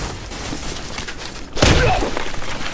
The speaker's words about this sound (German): Ja, der klopft dir die Steine weg wie nix. Aber warum macht er das mit den bloßen Fäusten?